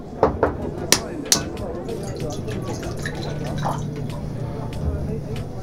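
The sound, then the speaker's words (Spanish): Several quick glassy clinks come first, then a steady splashing stream of lemonade being poured, with soft murmuring voices underneath. “Aquí está la limonada.”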